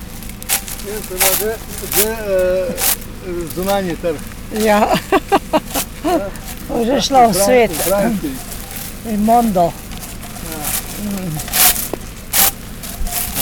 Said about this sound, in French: Hein, ici, on ramasse les olives avec un petit râteau. On écoute ces quelques petits, euh, cette petite ambiance sonore dans les oliveraies slovènes.